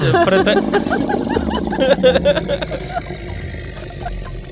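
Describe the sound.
A person growls loudly, imitating a tiger's roar, in one rough, drawn-out rumbling burst lasting a few seconds before trailing off into quieter background noise.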